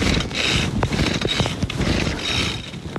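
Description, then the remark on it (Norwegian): Someone repeatedly tries and fails to start a diesel brush cutter behind a barn during a communal work day at Aalborg, where old reeds are being cleared for a new goat enclosure: rough mechanical rasping with irregular clicks and scrapes, the engine never catching. No one speaks. “Så er det da litt irriterende når man ikke klarer å starte Rikards dieseldrevne kantklipper.”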